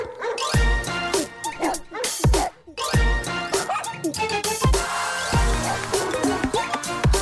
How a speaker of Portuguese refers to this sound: Enquanto um cão canta.